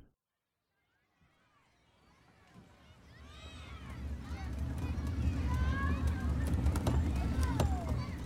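After a moment of silence, a busy harbor street on Commercial Street, Boston, on an unusually mild January day fades in: deep rumbling from hard work, clattering hooves of horses and passing trains, and scattered clanks swell into a steady, dense, fairly loud bustle.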